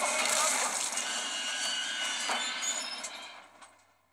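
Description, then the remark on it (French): A subway train in a simulation roars past with a dense, steady rush of noise and high metallic screeching from the wheels, holding loud for about three seconds before fading out. “Il pense qu'il vient d'écraser plein de gens avec une rame”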